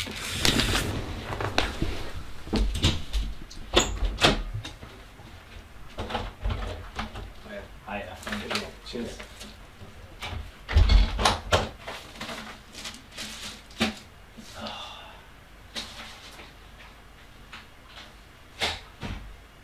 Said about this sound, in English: Uh, doors going, flipping.